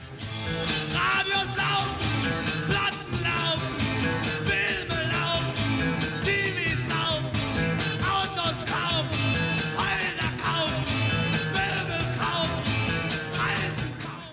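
A loud, driving German rock song with a male singer shouting over dense guitars and steady drums, playing continuously with no talking over it.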